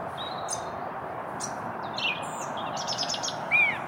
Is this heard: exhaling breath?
no